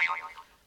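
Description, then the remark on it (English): A short snippet of the speaker's own mobile phone ringing with an incoming call: bright electronic tones sliding downward, fading briefly, then a sharp new note starting at the very end. No voices. “That, that's my phone.”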